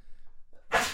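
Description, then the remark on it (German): A single sharp sneeze bursts out after a quiet moment with a faint breath, loud, with a bright hissy burst of air. “Gesundheit. Dankeschön.”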